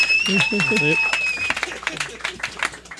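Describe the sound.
Audience applause fills the room with dense, steady clapping, while voices talk over it early on and a high sustained tone sounds briefly before fading.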